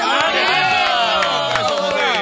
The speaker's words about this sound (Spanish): Eh, eh, un aplauso, por lo menos.